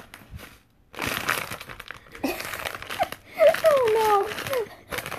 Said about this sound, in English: Um, the if you crackle that plastic